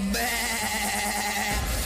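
A single drawn-out bleat, like a sheep or goat, loud, lasting over a second before cutting off abruptly, with no talking around it.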